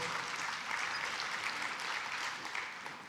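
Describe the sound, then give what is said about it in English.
Steady audience applause fills the whole stretch, a dense, even wash of many hands clapping at once, fairly loud and continuous with no voices breaking through. “Th- those people that just applauded were paid to do that ahead of time.”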